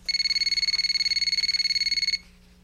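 signal or alarm, telephone ringing

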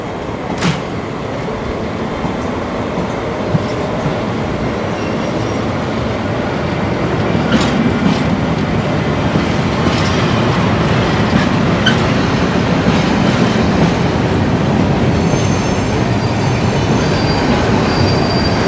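vehicle, train passing on rails

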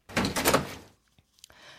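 household object, front door opening

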